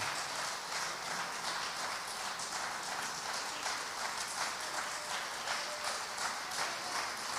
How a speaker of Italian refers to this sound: Un applauso. Alzatevi in piedi.